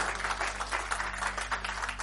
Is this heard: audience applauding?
yes